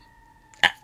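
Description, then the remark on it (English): Emergency vehicle sirens while it rains outside: a faint, steady siren tone hums in the background, with a brief, louder burst of noise cutting in near the end. “I apologize if you, if you can hear the sirens in the background.”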